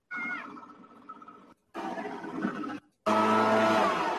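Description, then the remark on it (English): A leaf blower's small engine drones in two choppy bursts with brief cutoffs, then jumps to a loud, harsh full-throttle roar for the final second as the throttle is squeezed fully. “Listen to the throttle of the leaf blower. Like he just full throttle squeezed it.”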